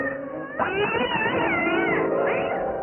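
A cat lets out a long, wavering meow that swells into a drawn-out yowl, loud and sustained for a couple of seconds with no one speaking.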